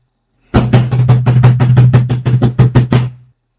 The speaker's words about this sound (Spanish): Las sirvientas esperaban en el corredor la orden de su patrona para abrir o no la puerta, que estaba siendo golpeada violentamente.